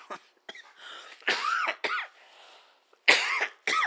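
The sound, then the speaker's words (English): A run of harsh coughs in quick succession, a few short hacks followed by louder, drawn-out bursts, with brief pauses between them and no talking. “Excuse the cough.”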